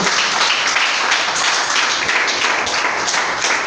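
A church audience claps steadily at night, applauding for the Lord, a dense sustained wash of many hands applauding together, with no voices rising above it.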